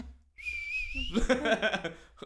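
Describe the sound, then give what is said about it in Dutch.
A shrill, thin human whistle holds one high, slightly wavering note for under a second, then gives way to a burst of voice. “Ik fluit heel graag, maar ik kan niet fluiten.”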